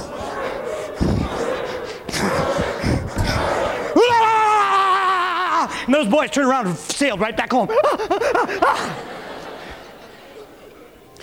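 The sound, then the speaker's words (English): A person telling a story speaks, then a voice loudly imitates a fierce demon dog: a drawn-out snarling howl followed by a rapid series of barks, before talking resumes. “And the demon dog, he heard him coming.”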